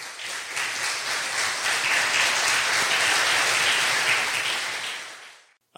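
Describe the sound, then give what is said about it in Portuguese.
An audience breaks into sustained applause for Jesus, a dense, steady wash of many hands clapping for about five seconds before it quickly dies away. “Aplausos para Jesus, irmão.”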